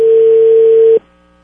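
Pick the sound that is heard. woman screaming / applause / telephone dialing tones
telephone dialing tones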